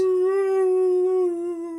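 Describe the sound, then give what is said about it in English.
A man's voice holds a long, steady, wailing note that sags slightly in pitch at the end, imitating whale song. It is fairly loud, a single unbroken call with no other sounds. “I was just doing the whale song.”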